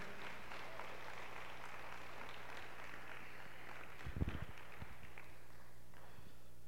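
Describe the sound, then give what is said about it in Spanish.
An audience applauds the Lord in a steady, dense wash of clapping for about six seconds, with a dull thump partway through, before the applause quickly tapers off. No one speaks. “Dale un aplauso fuerte al Señor por eso.”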